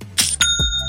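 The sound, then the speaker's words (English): A bright chime rings out in quick succession, a couple of metallic bell-like strikes with shimmering tones that sustain and ring on briefly, the notification of a sale on Shopify. “That's the sound of another sale on Shopify.”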